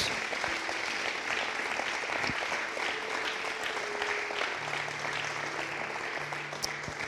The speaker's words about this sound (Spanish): Dale fuerte ese aplauso a Jesús.